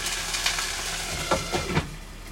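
Steady sizzling of food frying in a pan, a dense crackling hiss with a few sharper spattering pops near the end, moderately loud and with no voices.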